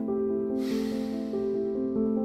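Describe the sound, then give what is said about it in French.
A long, slow breath out during a guided breathing exercise, soft and airy, drifts over a steady, sustained musical drone and gradually fades as it continues. “Expire.”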